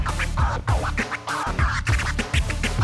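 DJ turntable scratching over a steady beat, with quick rhythmic back-and-forth sweeps of the record pitching up and down in short bursts, loud and without any voices.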